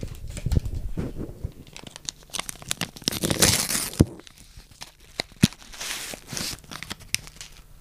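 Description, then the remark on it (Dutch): A packet of vanilla roast tea is torn open with crisp, papery rips and crinkles, a broad burst of tearing noise in the middle followed by a few sharp clicks and rustles, no one speaking. “Ik zal het zakje even openmaken.”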